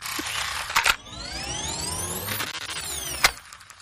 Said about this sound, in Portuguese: Peraí que tá passando uma moto. E tá chovendo, faz mais barulho.